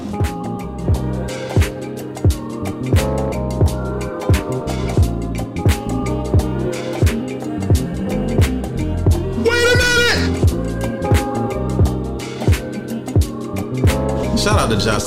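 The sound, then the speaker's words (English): A song plays loudly for the whole stretch, with a steady, punchy drum beat under thick layered instruments and a wavering, warbly vocal-like line rising briefly near the middle. “Like, you hear the music. Matter of fact, take a listen.”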